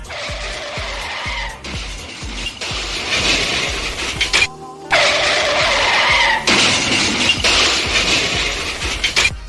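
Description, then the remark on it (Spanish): A car skidding and crashing sound effect: loud, harsh tire screeches in long sustained bursts, broken by a brief pause midway. It sounds dramatic, with no one talking. “Ese carro llega y de repente...”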